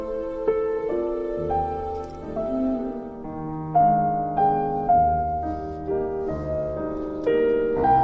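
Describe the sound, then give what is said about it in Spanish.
Melodic instrumental music plays steadily, with sustained harmonic tones and shifting chords at a moderate, even volume, and no voices over it. “Bueno, con esta música tan bonita vamos a alegrarnos un poco”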